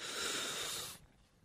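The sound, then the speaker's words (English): A deep, airy inhale for about a second, done as a breathing technique, a steady breathy rush that cuts off abruptly into quiet. “So I tell her to breathe in,”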